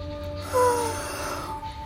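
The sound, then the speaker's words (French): A single exaggerated, feigned yawn, drawn out, with a breathy, wavering vocal tone that swells early and then trails off over about two seconds. “Zahari hoche la tête et promet de faire attention. Il fait mine de bailler”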